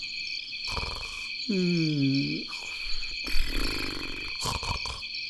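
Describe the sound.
Someone sleeping soundly in a dark prison cell at night snores: a deep, rumbling snore rises and falls once, followed by raspier, breathy snoring, all over a steady high-pitched insect-like chirring. A brief murmur of voice is heard too.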